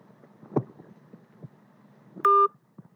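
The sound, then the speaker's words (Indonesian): A phone line on the Indosat network hisses with a few faint clicks and thumps, then a single loud, steady two-tone telephone beep sounds for a moment as the call cuts out, before the line drops back to near silence. “Ya, kok mati lagi sih? Ntar ya, gue telepon lagi nih.”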